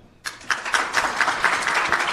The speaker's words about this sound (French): directrice de Oasis Centre des Femmes ici à Toronto, est en train de monter sur l'estrade sous vos applaudissements.